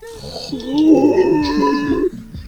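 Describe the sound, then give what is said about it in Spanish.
A voice imitates a man's loud snore: one long, rough, rumbling growl lasting about two seconds, before cutting off abruptly. “Era muy potente, era muy potente ese weón, yo creo que le da un infarto en cualquier momento, con, como roncaba”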